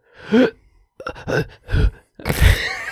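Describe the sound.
Someone wearing headphones imitates heavy, labored breathing while holding their breath: four loud, breathy gasps and groans separated by short pauses, the last one the longest and harshest. No one speaks.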